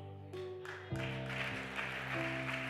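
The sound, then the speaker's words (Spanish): An audience breaks into steady applause, a dense wash of clapping that swells after a moment and carries on over sustained, held musical chords underneath. “Pero no aplauda tanto por ahora.”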